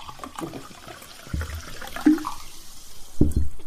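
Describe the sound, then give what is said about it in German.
Water pours into a glass of apple juice to mix a spritzer, a steady splashing, gurgling stream lasting a few seconds with a few louder glugs near the end. No one speaks. “Das ist Saft, das ist Wasser. Ich nehme Wasser. Apfelsaft oder. Äh, äh, Ah, dann mische ich es mir.”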